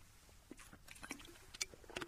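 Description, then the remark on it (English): Quiet wet mouth sounds of someone slurping a drink of water, a series of brief sips and gulps with small clicks, no talking. “I have to do my slurpy, slurpy water bit.”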